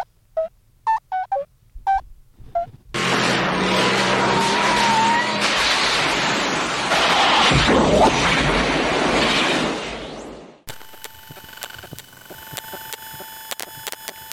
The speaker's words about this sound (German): Was war denn das? Wir müssen irgendwie die Kontrolle über das Auto verloren haben.